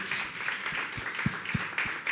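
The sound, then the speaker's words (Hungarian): An audience applauds to welcome novelist Tompa Andrea as a guest at a literary talk, a steady, dense wash of many hands clapping at a moderate level, with a few sharper individual claps standing out through the crowd noise. “és a mai két vendégem, az egyik Tompa Andrea, egy tapsal köszöntsük őt,”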